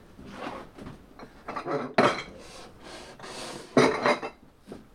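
Porcelain being smashed: repeated crashes and clattering shards, with two especially loud, sharp breaks standing out among continuous rattling debris. No voices are heard.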